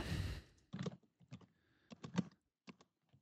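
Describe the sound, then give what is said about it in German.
Typing on a computer keyboard, entering commands at a blinking cursor: a handful of crisp, irregular key clicks and clacks, some in quick pairs, following a brief breathy rush of noise at the start, with no talking. “Oh, ich kann auch tippen.”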